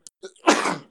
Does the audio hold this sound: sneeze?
yes